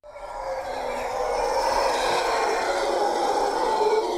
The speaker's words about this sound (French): Voilà, vous marchez dans un paysage volcanique, Et vous entendez ces fameux singes hurleurs. Vous faites demi-tour ah, incroyable. Et ça, quand vous les entendez comme ça, ils sont à plus de 2 km de là où vous êtes.